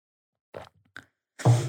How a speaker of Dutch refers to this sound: En dan neem ik eerst even een slokje water.